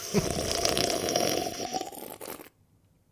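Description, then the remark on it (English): A loud, wet slurping of wine, drawn in as one continuous airy gurgle for about two and a half seconds before cutting off abruptly into near silence. No voices. “So you took your own advice, re the wine slurp.”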